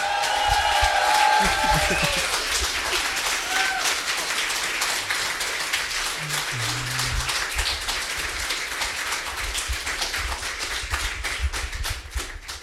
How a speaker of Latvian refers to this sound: Vēlreiz aplausu